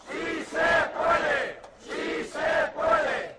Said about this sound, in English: This recent protest is in Valencia, right outside the home of a member of parliament. About 100 people are protesting the government's failure to rein in evictions.